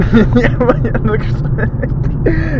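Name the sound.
car driving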